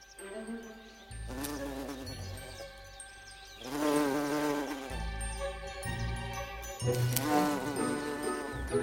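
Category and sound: insect, bumblebee buzzing in flight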